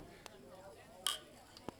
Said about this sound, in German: Prost. Clear. Clear. Ist das Glas? Das hat schon angehört wie Plastik. Nee, das muss Glas sein. Lass nochmal anstoßen, komm mal her.